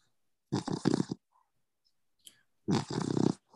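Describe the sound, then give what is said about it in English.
A dog named Blue snores, two rough, rattling breaths separated by a short pause, each lasting under a second, with nothing else around them. “I'm distracted by Blue snoring, I'm not gonna lie.”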